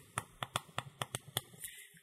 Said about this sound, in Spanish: ¿Sabes qué estás aprendiendo? hacer soniditos con el lápiz, con el cuaderno, con el libro. Pero realmente no estás haciendo nada.